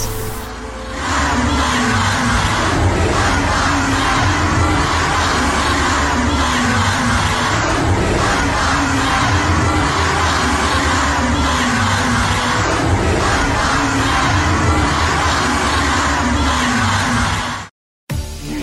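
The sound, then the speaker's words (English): A large protest crowd chants and shouts in a dense, loud, continuous roar with a faint rhythmic pulse, cutting off abruptly for a moment near the end before resuming. “We must do everything we can to continue to march, protest, and rally for justice.”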